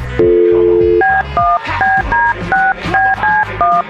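A phone number is dialed on a keypad to call a friend: a low tone first, then about nine short two-note beeps in a quick, steady rhythm, each clear and fairly loud, with no one talking.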